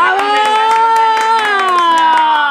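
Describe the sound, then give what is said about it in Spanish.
Steady, rhythmic hand clapping, roughly ten sharp claps at an even pace, heard under a loud, sustained voice holding a drawn-out tone that slowly slides in pitch. “Y yo, pues un aplauso.”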